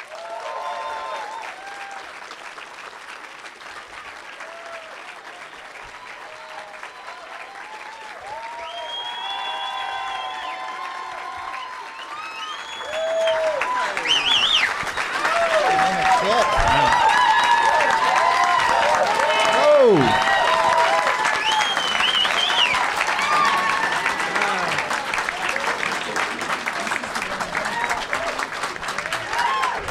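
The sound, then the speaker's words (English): An audience applauds steadily as comedians Tim Barnes, Adam Burke and Lamorne Morris are welcomed as guests, the clapping swelling to a louder roar about halfway through, with whoops, shouts and a few rising whistles of cheering mixed into the dense wash of sound. “Please give a big warm welcome to Tim Barnes, Adam Burke, and Lamorne Morris.”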